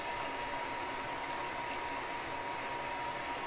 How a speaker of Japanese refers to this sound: これ難しくてさ 500ml って書いてあるんだけど 500ml を沸かすのかこれね 500ml の水を沸かせって書いてあるやつもあるしこれはね沸騰しているお湯 500ml なんだよねだから沸騰した結果 500ml になんなきゃいけないということはちょっと多めに沸かさなきゃいけないってことだよ